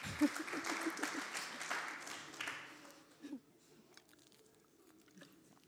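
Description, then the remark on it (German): An audience claps in a dense, crackling burst of applause that lasts about three seconds, then quickly thins out into a few scattered, faint claps. “Wenn einer klatscht, klatschen alle.”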